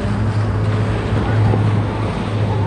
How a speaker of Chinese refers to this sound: 好吧，给你们听听大海的声音。